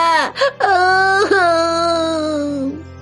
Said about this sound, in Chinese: 只见小瓢虫正哭闹着，瓢虫爸爸拿它一点办法也没有。